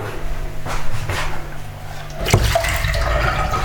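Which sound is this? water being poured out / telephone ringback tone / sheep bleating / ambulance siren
water being poured out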